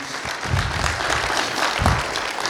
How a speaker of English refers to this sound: So um, go ahead and give Vanna White a hand here. You may sit down.